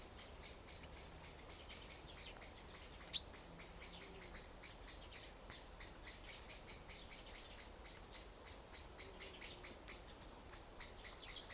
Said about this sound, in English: Now, I don't know if you've noticed, but where I am, there's a lot of sounds from the winter birds chirping away. And as I hear those sounds, I'm letting them come and be a part of my experience without letting my mind wander about what type of bird